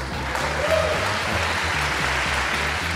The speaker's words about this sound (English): Applause for Bob Dole's run for president. Yeah.